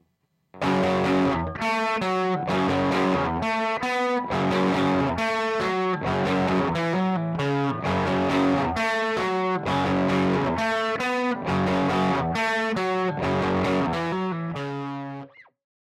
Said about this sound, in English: Now that we've got the nerdiness out of the way, what you've all been waiting for, let's run both of these amps together and see what it sounds like.